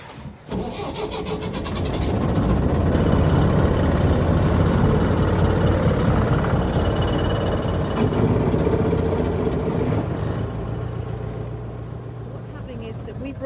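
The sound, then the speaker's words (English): A small ferry boat's engine starts up and settles into a loud, steady chugging drone with a low throbbing hum that runs continuously throughout, the ferry in the middle of the River Dart alongside an oyster fishing boat. “our little ferry. This is in the middle of the Dart, alongside the oyster fishing boat.”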